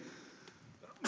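A single sharp, loud sneeze bursts out at the very end, after a second of quiet background noise with no talking.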